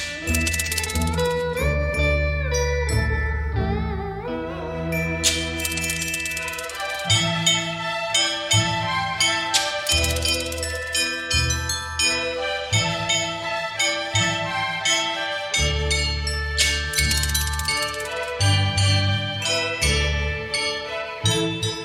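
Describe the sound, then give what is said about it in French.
Orchestral film music with sustained violins and a reedy harmonica line, punctuated by several bright, shimmering gong strikes, playing continuously and fairly loud with no voices. “L'harmonica, les violons, le gong, tous ces instruments créant une ambiance très particulière.”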